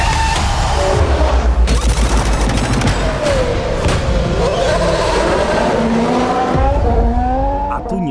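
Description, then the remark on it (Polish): Loud Formula 1 race cars roar past, engine pitch sweeping up and down through gear changes, with tires squealing and sharp bursts cutting through the continuous racing din, from the Netflix documentary series Formula 1: Drive to Survive. “ponieważ jest to serial dokumentalny o Formule 1.”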